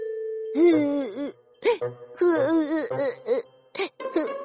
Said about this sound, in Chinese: 晚上的时候，西瓜地里传出了西瓜们的哭声。